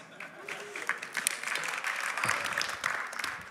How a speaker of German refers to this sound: Ja, Applaus.